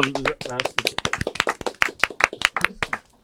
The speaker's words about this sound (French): Ah, voilà pour mon petit blind test. Merci, c'était magnifique. on applaudit